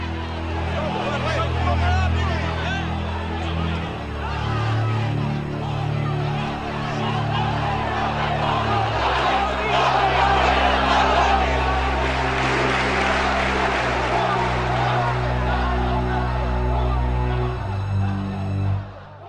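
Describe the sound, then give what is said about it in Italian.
An angry crowd shouts and clamors in front of a cathedral under a grey sky, a dense, continuous roar of many voices with no single speaker standing out, staying loud throughout with only small swells and dips. “Sotto il cielo diventato grigio, davanti a questa cattedrale del dolore, la rabbia e la disperazione non si placano. Ha continuato a gridare questa gente.”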